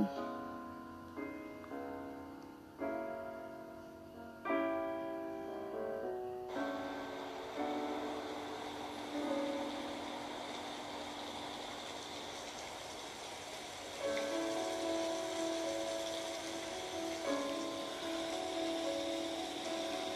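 A sound effect of vehicles and rain: a steady vehicle rumble rolls on throughout, thickening into a dense, rain-like wash after a few seconds, with sustained tonal hums layered over it. No one speaks.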